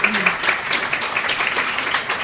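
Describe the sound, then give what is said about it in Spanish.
Audience applause: a dense, steady patter of many hands clapping at once, bright and sustained for a couple of seconds with no pauses, a faint voice murmuring underneath. “Un aplauso para este nuevo podcast.”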